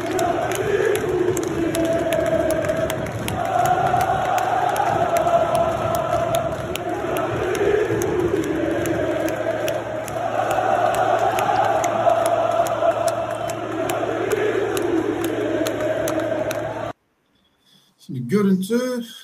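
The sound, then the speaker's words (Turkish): A large crowd of Fenerbahçe fans chants in unison at a UEFA Champions League match against Ukraine's Dynamo Kyiv, a loud sustained roar of voices rising and falling in a repeating melodic pattern, then cutting off abruptly near the end. “Biri e, Fenerbahçe maçında yapılan bir tezahürat.”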